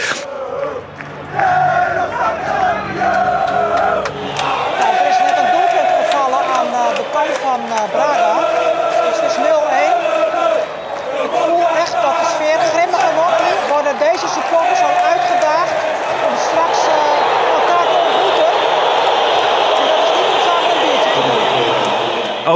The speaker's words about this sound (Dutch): Dat, er drie, dat er drie supporters eh, naar elkaar zitten te schreeuwen.